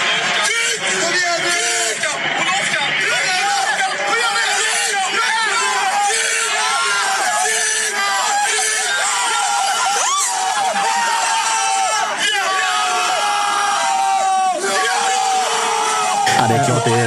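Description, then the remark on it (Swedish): A crowd in the grandstand at a harness race cheers loudly and continuously as the horse Adriatica runs home her race, with many excited voices shouting and whooping, building throughout before cutting off abruptly at the end. “och så här såg det ut på vår, vår läktarplats när, när hon sprang hem sitt lopp.”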